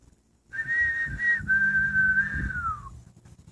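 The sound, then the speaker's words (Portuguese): A person whistles in imitation of a bird's song: a steady, fairly high tone held for about two seconds, briefly broken once, then gliding gently downward at the end. Low background rumble underneath. “Primeiro passarinho cantava.”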